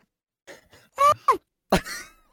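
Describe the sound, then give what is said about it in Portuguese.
A broken kazoo sputters out a few short, buzzy, groaning bursts, uneven and strained, fairly loud with brief gaps between them and no talking. “Esse é o caso mais triste que eu já ouvi, bro.”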